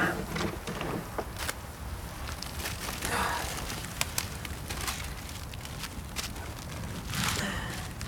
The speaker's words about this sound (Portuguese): Januário ajeita os galhos numa fogueira.